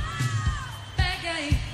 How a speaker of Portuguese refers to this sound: Só as meninas, hein? Meninas, atenção. Olha o gritinho, hein? Só as meninas, hein?